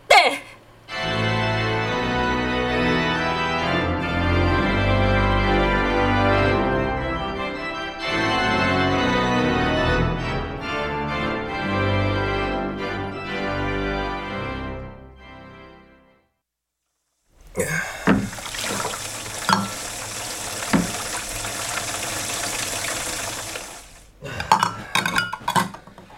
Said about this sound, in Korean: 아, 설거지 끝. 고생했어요. 고마워.